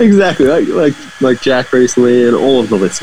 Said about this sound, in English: Do you hear that? If you hear that noise in the background, I do hear that. Yeah. That's my brother coming past with his blower.